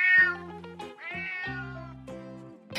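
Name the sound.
cat meowing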